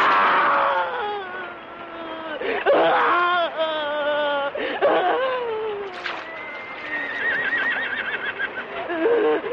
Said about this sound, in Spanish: Pasan los caballos de los forajidos, ahora ya sin jinetes.